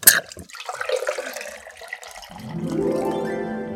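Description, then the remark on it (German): A drink is poured into a glass: a splashy gurgle at first, then a steady stream whose tone climbs in pitch as the glass fills. No voices. “Mache ich jetzt auch mit meinem Glas voll.”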